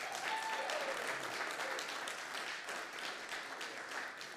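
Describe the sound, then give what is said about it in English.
An audience applauds steadily, a dense wash of many hands clapping at an even level for several seconds, with a few faint whistle-like tones near the start. “And can we give him another Round of applause.”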